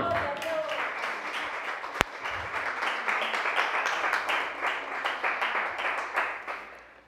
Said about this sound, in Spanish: Dale un aplauso al Señor.